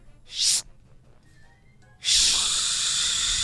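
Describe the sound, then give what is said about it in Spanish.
A voice imitates a lady in a library with a snake: a short, sharp shushing burst, then after a quiet pause a long, loud, steady hiss like a snake, with no talking. “Es una plática de una señora que está en la biblioteca con una serpiente.”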